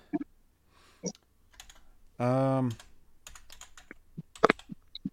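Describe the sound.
Irregular clicking of computer keyboard keys being typed in short bursts, with a brief hesitant vocal sound from a person partway through.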